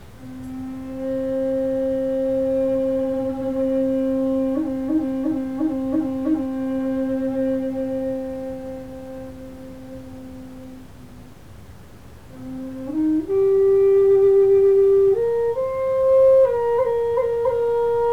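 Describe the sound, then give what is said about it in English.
Wind moans through a pine canyon on a mountain in a steady, organ-like hum that wavers briefly, fades, then rises in pitch in a few clear steps. It stays loud and unbroken, with no voices. “And the wind blows through this canyon. And as it does, it plays this song.”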